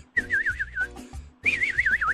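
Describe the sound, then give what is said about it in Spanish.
A person whistles two bright, warbling phrases imitating a little bird in flight, the pitch trilling up and down rapidly, with a short pause between the phrases. “Pobrecito, imagínate el pajarito ahí va.”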